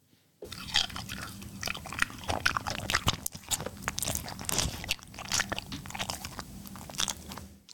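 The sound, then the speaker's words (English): Wet, crunchy biting and chewing up close, a pickle crunched repeatedly with juicy snaps and squelches over several seconds, no voices. “That is a pickle.”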